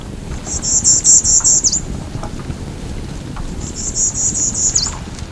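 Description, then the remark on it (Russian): A Bachman's warbler, a songbird of swamps and lowland forests of southeastern North America, sings two short, rapid buzzy trills of high chattering notes, separated by a brief pause, over a steady low rumbling background noise. “Среди них и певчая птичка, древесница Бахмана, она же багамская червеедка.”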